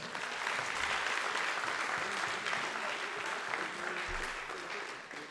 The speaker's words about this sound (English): But one more big round of applause for all the seniors.